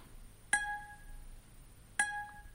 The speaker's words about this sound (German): Ja, hier habe ich jetzt meinen Laptop und ihr hört, äh, er wird erkannt im Kamerabild und ein Ton wird abgespielt.